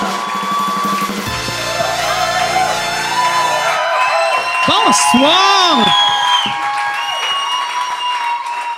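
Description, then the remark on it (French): A crowd at a live taping of Mike Ward Sous Écoute at La Cabane in Val-d'Or applauds and cheers steadily throughout, with loud whoops and rising shouts swelling in the middle, while a man calls out a greeting over the noise. “C'est mon premier sous-écoute live devant le public depuis à peu près un mois et demi.”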